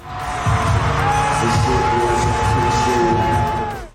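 A large concert crowd roars and cheers steadily after the performer finishes a song and embraces his mother on stage, with high whoops and a sustained whistle cutting through the dense, loud wash of voices before it fades at the end.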